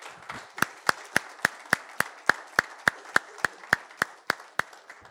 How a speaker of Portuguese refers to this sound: Vocês contribuíram brilhantemente. Quero aplaudi-los. Vamos aplaudir os nossos irmãos que participaram brilhantemente desse momento especial.